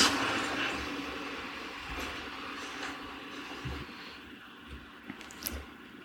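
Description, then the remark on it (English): A car passes by outside, its broad whooshing rumble loudest at the start and slowly fading as it moves away, with a few faint knocks near the end and no talking. “there's like a car, and I don't know if like it's like too loud, but hopefully it's not.”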